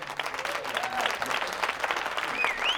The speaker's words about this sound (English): Round of applause.